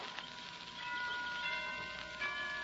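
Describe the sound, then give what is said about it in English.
Tower chimes ring out in a steady, overlapping wash of bright, sustained tones with shimmering overtones, set against a constant hiss of rain-like noise. No one speaks. “Those chimes from the tower, they're, they're beautiful, aren't they?”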